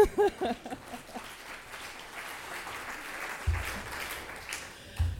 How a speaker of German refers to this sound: Also das finde ich schon mal einen Applaus wert.